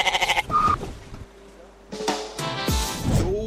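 A goat bleats loudly, a quavering, pulsing call at the start followed by a couple more wavering bleats, with some other sound briefly in between.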